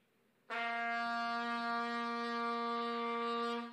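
One long, steady trumpet blast held for about three seconds in the manner of a shofar call, loud and brassy with a fixed pitch and no talking over it.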